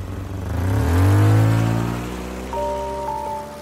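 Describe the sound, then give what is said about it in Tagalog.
A van engine revs up loudly, its pitch rising and sliding as it pulls away on a test drive, then settles into a steadier hum with a faint whine, with no voices. “I-drive test na natin tong van.”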